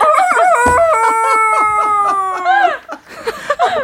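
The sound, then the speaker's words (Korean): A person does a drawn-out, wavering imitation of a sick chicken, with a strained crowing and clucking voice held for over two seconds before trailing off into short squawks. “약간 아픈 닭이에요.”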